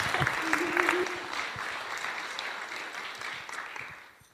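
An audience applauds steadily, a dense wash of many hands clapping that holds for several seconds, with a brief whoop and faint voices early on before it gradually tapers off.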